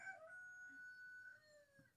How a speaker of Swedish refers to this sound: Ja, tror du tuppen säger att det är dags att lägga ner nu?